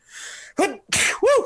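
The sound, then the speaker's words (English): A quick burst of sneezes, a breathy intake followed by sharp, loud explosive bursts in close succession, with no talking. “Uh, Bless you.”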